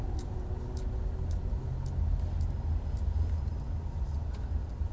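car interior

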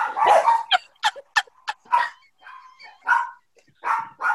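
dogs barking excitedly

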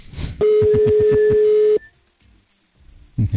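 telephone call ringing out

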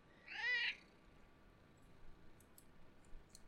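cat meowing

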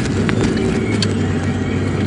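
car driving in traffic

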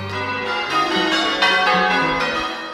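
church bell ringing

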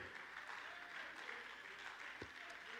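audience clapping hands

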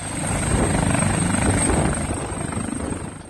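police helicopter flying

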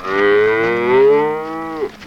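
cow mooing

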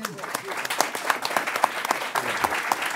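audience applause

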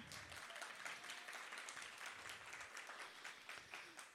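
audience clapping hands

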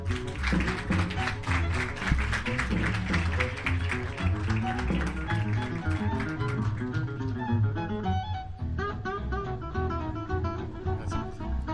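audience applause

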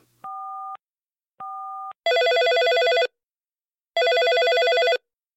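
telephone ringing

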